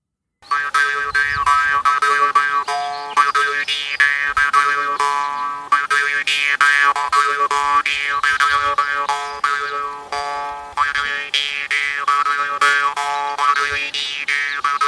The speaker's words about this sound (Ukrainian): А наступний інструмент дримба. Це такий малесенький інструмент, е, який робить ось такий специфічний звук.